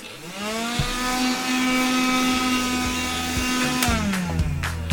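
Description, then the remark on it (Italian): A vacuum cleaner whirs up to a steady, droning motor hum with a buzzy whine, used to suck up a mosquito. A few sharp clicks near the end, then the motor starts winding down. “Ma, con l'aspirapolvere, mi È il trucco dell'aspirapolvere, funziona sempre.”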